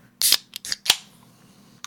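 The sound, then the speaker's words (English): A drink can, chilled in the fridge, being cracked open: a sharp snap with a short fizzy hiss, followed by a few quicker metallic clicks and one faint final tick, with no voices. “Let's crack into this. Got this one all in the fridge today.”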